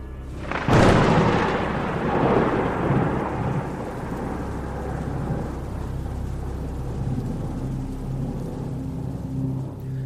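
A single sharp, very loud crack of thunder bursts near the start, then rolls and rumbles on for several seconds with steady rain hissing underneath. No one speaks.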